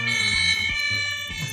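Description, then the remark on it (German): A loud electronic alarm blares continuously, its shrill, steady high-pitched tones sounding like a fire alarm, with some low rumbling underneath and no speech. “Du gehst ja ab wie die Feuerwehr”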